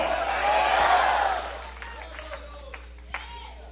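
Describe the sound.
A church audience shouts out together, answering the preacher's call for a shout of "gloria a Dios", in a loud, swelling burst of voices that lasts about a second and a half, then fades into quieter scattered voices and murmurs.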